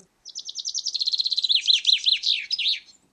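bird, birdsong played

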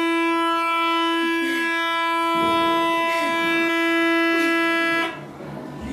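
pipe organ being played

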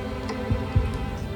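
human body sound, heartbeat

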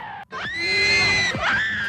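crowd, fans screaming

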